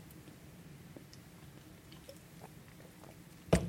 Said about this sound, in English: Got your drink? I'm going to have a little sip here.